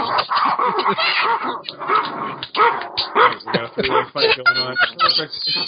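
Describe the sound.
A dog barks repeatedly and loudly, a run of sharp, uneven barks with a few higher yips, while voices are heard talking beneath it.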